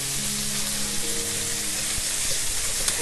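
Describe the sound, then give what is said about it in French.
Food laid flat in butter in a pan sizzles steadily as it crisps and caramelizes, a continuous crackling hiss with bright spitting pops and a faint low hum underneath, with no one talking. “Ah mais le but, c'est, euh, j'imagine, une fois qu'ils sont tous bien à plat et, dans le beurre, de les laisser euh, croustiller, enfin prendre les croustillants et, se caraméliser.”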